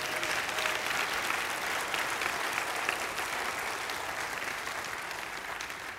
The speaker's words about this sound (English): Could we have a warm applause for him, please?